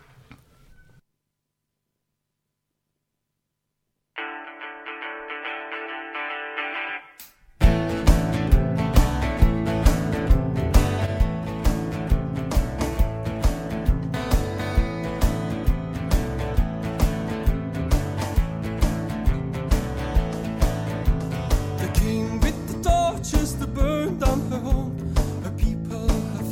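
A band song begins: a brief hush, then a sustained keyboard-like chord, before loud drums, bass and guitars crash in with a steady, driving beat. No voices yet.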